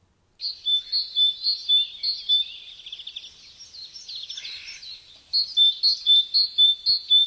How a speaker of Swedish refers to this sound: Eh, vi tar och lyssnar på hur eh, talgoxen låter. Är du beredd? Ja. Det kommer två gånger.